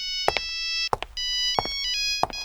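An electronic telephone ringtone for an incoming call to Medi Consulting plays a bright, steady melody of sustained tones that step between pitches, punctuated by four sharp clicks at roughly regular intervals, with no voices.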